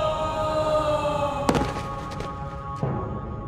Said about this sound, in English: The alien's orange eyes grew cloudy before Kirana slumped lifelessly to the floor.